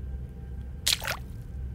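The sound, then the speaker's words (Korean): A brief wet squelch of footsteps, at first taken for drops of rain leaking in, lands once or twice in quick succession inside an old gymnasium, against a quiet low background hum with no talking. “그래서 비가 새서 그 물방울 소리라고 생각한 순간 잘 봐.”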